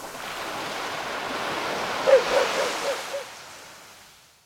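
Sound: ocean waves washing in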